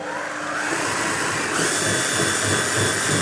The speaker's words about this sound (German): So, jetzt äh, werden hier diese Flocken, die schon so aufgeweicht sind, mit dem Wasser gut durchgequirlt. Mhm. Und man sieht jetzt schon, dass das eine viel flüssigere Konsistenz äh, bekommen hat insgesamt.